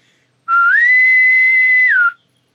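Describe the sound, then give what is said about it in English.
A single loud whistle made by a person imitating a naval boatswain's call, the sound made when someone boards a ship, done when dinner is ready: it starts low, slides up to a steady high note held for over a second, then drops away at the end, with nothing else around it. “which is like the sound they make when someone boards a ship.”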